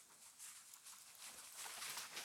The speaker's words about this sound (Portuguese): Rapaz! Eu ouvindo aqui o um negócio no mato é um cachorro. Vindo aqui a milhão, olha que louco! Já pensou se era uma onça, galera? Dois cachorros.